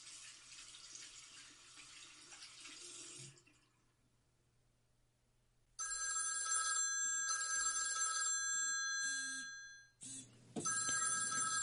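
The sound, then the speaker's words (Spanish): Water runs from a tap briefly, then after a short silence a loud telephone bell starts ringing in repeated insistent bursts with brief gaps, continuing to the end. “Oh, ¿quién será ahora otra vez el teléfono?”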